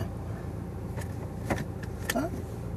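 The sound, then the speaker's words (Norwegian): A car idles and rumbles at low speed while being maneuvered, with a few sharp mechanical clicks and a short rising whir as the gear shifts into reverse. “Jeg trodde vi hadde reversen i stad.”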